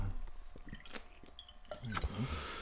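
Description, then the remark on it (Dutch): Wet liquid sounds: a brief pour and trickle of Sambuca into a glass, a few sharp glassy clicks, then slurping sips and swallowing, fairly quiet with no clear talking. “Ja, ik zit aan de Sambuca, lieve luisteraars.”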